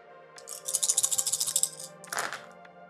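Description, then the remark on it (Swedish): A rapid burst of small hard clicks and clatters as eight dice are rolled, rattling and tumbling together, fading into a brief scrape, heard alone without talk. “Slå eh, åtta tärningar.”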